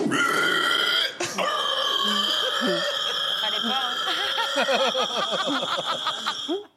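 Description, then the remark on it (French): A man, a pig-squealing champion, imitates a pig squeal, a loud, shrill, sustained squeal lasting several seconds. It breaks briefly near the start, then wavers and warbles until it cuts off. “Ah, oui, c'est le champion du cri de cochon”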